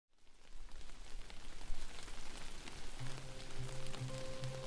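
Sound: cold rain falling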